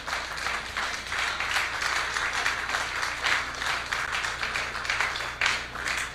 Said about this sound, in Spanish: Dele palmas al Señor.